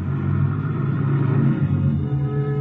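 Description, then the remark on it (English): A car engine hums in a steady low rumble as the vehicle rolls slowly down a long, winding driveway toward a villa, holding an even pitch throughout with no voices. “Just as I get there, I hear a car winding down the long driveway, so I duck into the bushes.”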